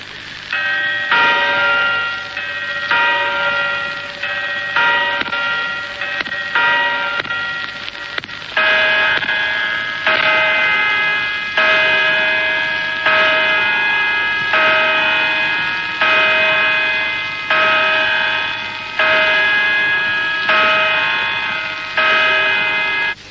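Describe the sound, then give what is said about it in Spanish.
Clock tower bells of the Puerta del Sol clock in Madrid ring out, first a quicker run of chimes, then slow, evenly spaced heavy strikes marking ten o'clock at night, each ringing tone lingering into the next. Loud, with no talking. “Son las 10 de la noche en el reloj de la Puerta del Sol.”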